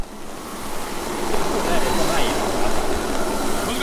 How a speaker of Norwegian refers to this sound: Nå er vi eh, på Høgskolen på Vestlandet. Type kvarter unna sentrum. Vi går mellom høye bygninger og tett trafikk.